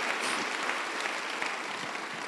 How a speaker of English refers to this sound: Clap unto the Lord. Amen. Hallelujah.